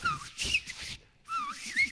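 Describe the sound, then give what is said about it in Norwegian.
A person whistles a birdlike call in two bursts of quick, chirping high notes with sliding pitch, separated by a brief pause, mimicking a songbird. “Jeg snakker jo med fugler.”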